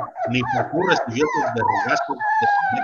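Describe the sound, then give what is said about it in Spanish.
A dog barks in quick, yelping bursts, then drifts into a long, high whimper, with the noise running almost without a break for about three seconds. “¡Puto perro!”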